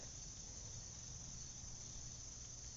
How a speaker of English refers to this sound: As I speak this, a bee, a honeybee, hums and buzzes and drones around Mary, the All Mother here in the grove.